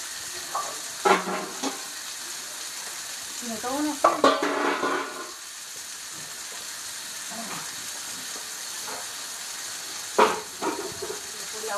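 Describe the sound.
Water rushes steadily across a patio floor in a continuous hiss as the patio is washed down, with occasional scraping knocks and a person speaking briefly over it.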